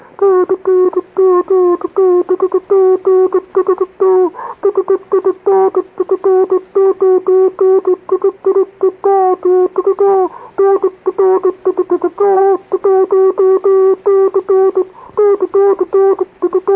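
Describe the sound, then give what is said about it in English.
Morse code groups beeping steadily: a single mid-pitched buzzy tone keyed rapidly on and off in dots and dashes, loud and continuous throughout with brief gaps between groups, no voices. “Coded groups would come floating in out of the out of the air around me.”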